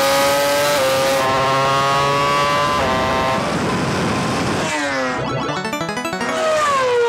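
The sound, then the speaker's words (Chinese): A motorcycle and an F1 car drag race flat out on a 400-metre airfield runway, their high-revving engines wailing loudly with layered whines that climb and drop through gear changes, then a sweeping pass-by toward the end. No one talks. “连续两个回合都是摩托车率先压线，F1 赛车第二。”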